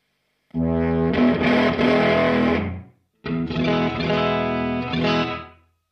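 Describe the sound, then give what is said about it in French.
Electric guitar through an amp pedal, played in two loud bursts separated by a brief gap, shifting from a very clean tone to a thick, heavily overdriven, intense sound. No talking. “Voilà, donc je passe d'un son très clean à un son très très euh, intense.”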